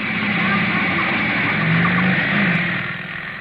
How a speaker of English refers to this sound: A motorcycle, jet propelled by a black haired lunatic in a leather jacket with a blonde beauty riding behind him.